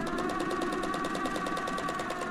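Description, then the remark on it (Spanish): A Singer sewing machine runs steadily, its needle mechanism clattering in a fast, even rhythm with a faint whirring hum underneath, continuous with no voices. “Una máquina de coser Singer y los libros que le quedaron de su matrimonio como único capital.”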